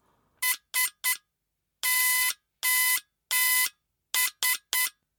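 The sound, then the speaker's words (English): Morse code SOS beeps tapped out with the brass lever of a brass-and-wood device: three short tones, three long tones, then three short tones again, a loud, buzzy electronic signal sounding alone with brief silent gaps between each beep. “Perhaps you've heard this Morse code in an old film as a ship was going down.”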